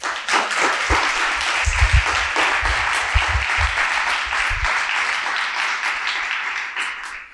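An event audience applauds in thanks to the Lebendige Bibliothek for providing the room, many hands clapping at once in a loud continuous patter that holds for several seconds before tapering slightly at the end.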